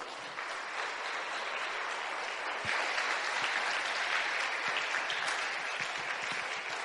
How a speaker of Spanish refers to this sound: Aleluya. Dale palmas al rey.